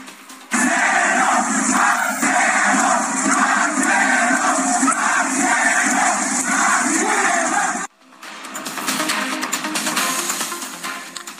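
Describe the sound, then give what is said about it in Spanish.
A large crowd chants "presidente" loudly in unison, greeting an official at an event of Julio Menchaca, Morena-PT-Nueva Alianza candidate for state governor, repeating the word over and over, then after a brief cut the roar of a cheering crowd continues at a similar level. “Julio Menchaca, el funcionario fue recibido con gritos de ¿qué cree usted? Presidente, presidente.”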